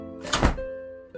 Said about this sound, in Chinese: 狸猫大叔一边说，一边把手里的伞“啪”的一声撑开来。